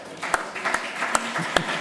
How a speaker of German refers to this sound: Genau. Super! Applaus mal